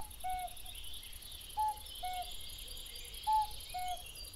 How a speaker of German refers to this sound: Das ist ein Kuckuck. Das ist doch der, der seine Eier in fremde Nester legt und seine Küken dann von anderen Vögeln aufziehen lässt